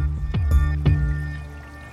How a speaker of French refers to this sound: Moi, je ne sais pas, le bruit d'une rivière, je suis scientifique, mais le bruit d'une rivière, c'est apaisant.